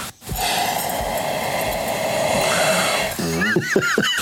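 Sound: sniffing wine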